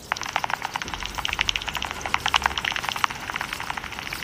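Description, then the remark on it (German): Pipistrelle bat echolocation calls come through as a fast, irregular stream of dry clicks and ticks, steady for the whole stretch, with no voices. “Ich habe euch die Aufnahme der Zwergfledermaus, die wir da gemacht hatten, auch nochmal mitgebracht.”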